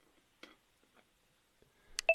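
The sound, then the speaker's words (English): Telephone dialing tones while placing a call from a personal phone: after a near-silent stretch with one faint tick, a couple of short electronic beeps sound in quick succession right at the end, fairly loud. “I'm calling from my personal phone.”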